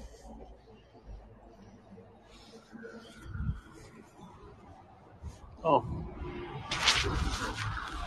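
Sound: city bus arriving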